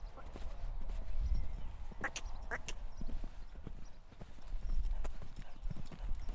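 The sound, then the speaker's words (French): A racehorse trots on a lunge line with steady, rhythmic clip-clop hoofbeats over a low rumbling outdoor background. “Tu vois là on retrouve le cheval de course qui pousse beaucoup vers de l'antérieur.”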